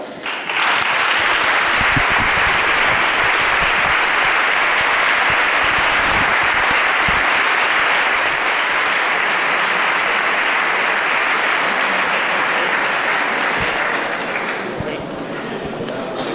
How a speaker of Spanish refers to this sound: Bueno, pues hemos escuchado el aplauso eh, de los cofrades de la borriquilla respaldando así la decisión de su Junta de Gobierno